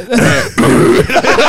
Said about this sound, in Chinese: 我要去咳嗽